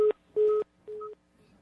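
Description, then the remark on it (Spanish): Repeating electronic telephone tones on a dead line after a caller to a radio station hung up, three short steady beeps with gaps between them, fairly loud and clear with no voices present. “nos llama a través del teléfono de Radio María, entonces vamos a poner esta llamada al aire”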